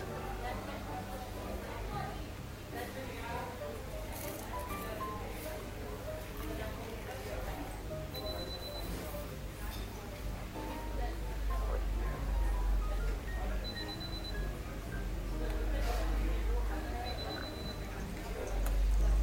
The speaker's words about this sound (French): dans un bol, battre les œufs avec la crème